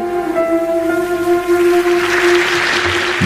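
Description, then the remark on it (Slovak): A sustained musical note rings out as audience applause breaks out mid-performance on the open stage, a dense crowd clapping that grows louder and fills the rest of the moment. “No a prišiel potlesk na otvorenej scéne.”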